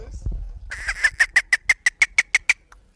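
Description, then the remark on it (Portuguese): An actor and singer imitates a dolphin with a quick, steady run of about a dozen high, chattering squeaks, fairly loud, with no other talking. “Este foi o conhecido golfinho.”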